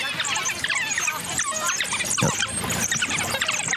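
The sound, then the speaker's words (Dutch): A pack of African wild dogs in the Linyanti region twittering and squealing in high, chirping bursts, many calls overlapping in a busy, continuous chorus. “Het zijn wilde honden.”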